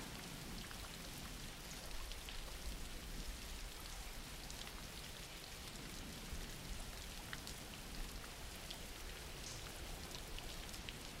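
Steady rain falls throughout, a dense, even hiss with scattered crisp drop ticks on a surface. No voices, and the level holds constant from start to finish.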